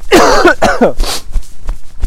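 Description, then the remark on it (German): A man hacks and clears his throat, with two loud, drawn-out voiced coughs that sound exaggerated, as if put on, followed by a short breathy rasp and quieter shuffling. “Mensch, muss man eben rotzen. Äh, husten.”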